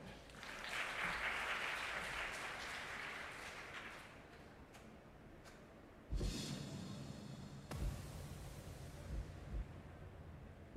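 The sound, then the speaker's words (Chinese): A church audience claps together in a dense, steady burst of applause welcoming a video reviewing last year's youth camp, gradually thinning out over several seconds, followed by a sudden, louder rush of other sound. “所以我们一样要来拍手欢迎这部影片。”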